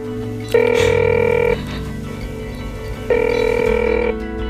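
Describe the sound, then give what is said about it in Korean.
A phone line rings out twice, each steady electronic tone lasting about a second with a long pause between, over a low sustained drone; no one picks up. “그리고 다시 기훈에게 전화를 건다.”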